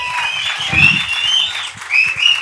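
A crowd claps steadily in a dense, continuous wash of applause for Luz Elena Coloma, candidate for mayor of Quito, with a few high-pitched whistles or cheers rising above it. No one speaks.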